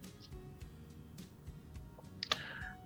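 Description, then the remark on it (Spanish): Someone types on a computer keyboard during a presentation, scattered, irregular clicks, soft and uneven in rhythm, with a sharper cluster of taps near the end over a low background hum. “Bien, quiero que deje el teclado porque usted se distrae.”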